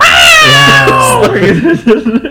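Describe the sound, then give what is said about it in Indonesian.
A person imitates a cat with a long, drawn-out meow that bends downward in pitch, loud, then trails into a few choppy vocal sounds as talking resumes. “Kalau enggak ya mijit suara kucing dia”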